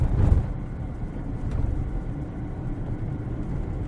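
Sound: car interior noise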